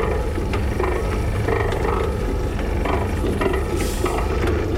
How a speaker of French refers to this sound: J'attendais patiemment qu'une voiture rentre pour enregistrer ce magnifique mécanisme de portail.